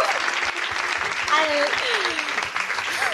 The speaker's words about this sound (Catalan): O sigui, un aplaudiment perquè ha pujat una visualització al Uh!